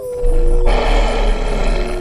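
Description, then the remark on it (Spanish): A loud werewolf roar as it transforms into a furious monster swells into a harsh, rumbling growl that holds steady for about two seconds, with no talking. “Ahora soy inmortal y cada que hay luna llena, me transformo en un monstruo furioso.”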